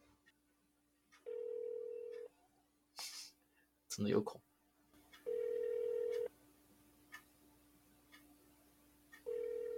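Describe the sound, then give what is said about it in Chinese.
A telephone ringback tone sounds three times as a call is placed, each a steady mid-pitched buzz lasting about a second, with brief bursts of talk and clicks between the rings; the call goes unanswered. “哎、又可以打了，来了，被挂掉了。”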